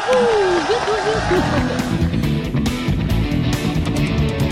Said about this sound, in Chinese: 哟呵，来大家掌声鼓励一下！